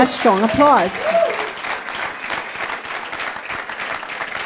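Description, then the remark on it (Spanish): A church audience breaks into loud, sustained applause after a sermon, dense clapping filling the whole stretch, with a voice whooping or calling out over it at the very start. “Pero él ese fuerte aplauso.”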